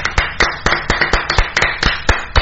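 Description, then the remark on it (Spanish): Applause with a steady rhythm of sharp, loud claps, roughly four per second, backed by softer scattered clapping in between. No one speaks. “Aplausos, por favor, mi gente.”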